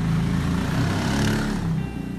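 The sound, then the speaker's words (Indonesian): A motorcycle engine runs steadily for a couple of seconds, a loud low rumbling drone with a buzzing harmonic whine that rises slightly in pitch midway, then eases off. No one speaks. “suara motor”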